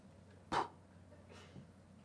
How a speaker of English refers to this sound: I, I wasn't coughing. That's what Hebel means a puff of breath, a puff of wind, or a vapor. That, that word literally, behind vanity, the, the Hebrew word literally means puff of breath.